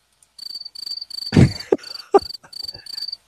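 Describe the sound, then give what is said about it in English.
Crickets chirp in a steady, pulsing rhythm, a classic awkward-silence sound effect, with a few soft thumps and clicks breaking in partway through. No one speaks. “You get the crickets for that one.”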